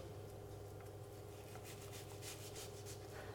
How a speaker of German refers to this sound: Den Rest der Zwiebel schneiden wir in kleine Würfelchen, weil das kommt ins Patty rein. Mhm. Ja? Also, dann schneiden wir jetzt die andere Hälfte der Zwiebel in feine Würfel. Wie ihr es kennt, erst von oben, dann von der Seite.